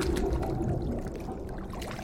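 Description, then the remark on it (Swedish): Water sloshes and swirls steadily, a low churning splash as someone slowly steps down into the water and wades toward a door, with occasional brighter trickles and no voices. “Du kliver sakta ner i vattnet och tar dig närmare dörren.”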